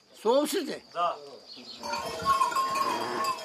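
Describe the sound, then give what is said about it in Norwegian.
Sheep bleat, two wavering cries in quick succession, then a busier stretch of overlapping noise from a flock on a farm, with outdoor bustle, fills the rest of the moment. “Han har gjeta sauer hele livet.”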